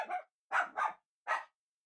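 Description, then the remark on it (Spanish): A dog named Croqueta barks at everything, four times in quick, uneven succession, sharp, with short silences between the barks and no other sounds around them. “Sí, de pronto se, volvió loca y empezó a, ladrar a todo”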